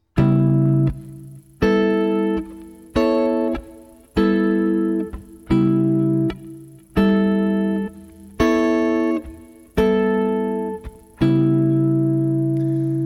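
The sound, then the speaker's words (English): A guitar plays a slow sequence of about nine ringing three- and four-part chords, each struck cleanly and left to decay before the next, in a steady, unhurried rhythm with no talking. “And just like the other columns, you can pull three part and four part chord structures out of them.”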